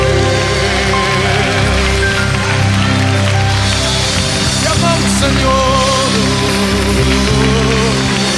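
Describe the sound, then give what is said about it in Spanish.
A church audience claps their hands in praise to God in a dense, steady patter that runs the whole time, loud and continuous like rain, with a voice speaking over it and sustained musical tones underneath. “Con nuestras palmas estamos hablando a Dios.”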